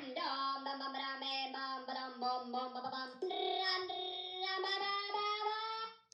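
A novelty frog ringtone from 2003 plays loud: a buzzy, nasal, electronic-sounding melody with quick rhythmic note changes, running continuously for several seconds with no talking over it.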